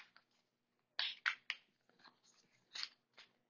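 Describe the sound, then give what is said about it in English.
Cards being shuffled, with a few sharp papery riffles and slaps in quick uneven bursts and soft rustling between them. No one speaks. “I'm shuffling this”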